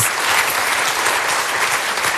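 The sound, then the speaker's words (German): Steady, dense applause from an audience, a continuous wash of many hands clapping at once, fairly loud, with no voices standing out. “kurz in den Applaus hineingefragt”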